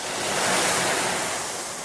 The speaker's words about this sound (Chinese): 他们站在瀑布下面，瀑布很高，冲下来的水打在湖面上，水花溅了起来。